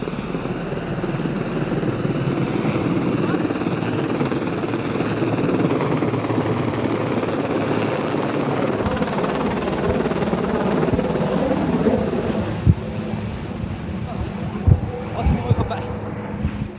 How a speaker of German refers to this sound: Jetzt kommt der Hubschrauber.